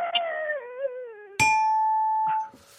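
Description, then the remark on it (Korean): A wavering tone slides downward, then a single bright bell ding strikes sharply and rings steadily for about a second before cutting off, a quiz show's fail bell sounding on a contestant's rooster-call imitation. “예, 땡이 나왔거든요.”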